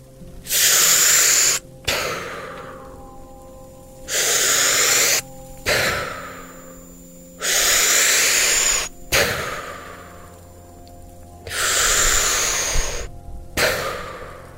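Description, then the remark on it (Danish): Heavy, forceful recovery breathing of a freediver just after breaking the surface, expelling built-up CO2 and taking in oxygen: four loud, hissing exhalations in a slow, steady rhythm, each followed by a sharp, brief inhale, with quieter hollow rumbling between breaths. “Når jeg skal op igen til overfladen, så det første, jeg gør, det er at komme af med det CO2, som min krop har ophobet og få nyt ilt ind.”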